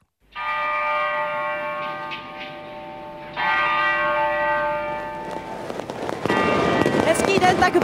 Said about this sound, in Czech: Zvony věžních hodin chrámu svatého Víta ohlásí půlnoc.